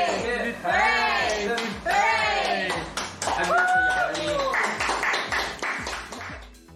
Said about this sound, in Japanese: はい、こんな感じでね、えバースデーソングを歌った後に、えこの掛け声を3回言ってですね、お祝いするという感じですね。えこれは日本の万歳三唱みたいな感じでしょうかね。3回いますんでね。